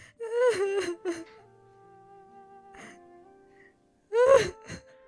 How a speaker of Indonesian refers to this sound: Tapi, setiap hari di malam hari, hanya tangisan yang didengar sang adik.